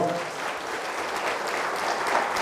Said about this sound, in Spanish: dan un fuerte aplauso a nuestro Dios y Señor.